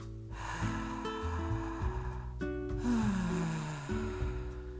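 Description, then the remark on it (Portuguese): Deep, slow, airy breaths drawn in through the mouth and let out through the mouth as conscious breathing, rising over soft sustained background music with no talking. “Respira pela boca e solta pela boca. Essa respiração se chama respiração consciente.”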